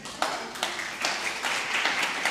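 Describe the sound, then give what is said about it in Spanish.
A crowd applauds steadily for a couple of seconds, a dense wash of many hands clapping with a few sharper, louder claps standing out. “Un aplauso, gracias.”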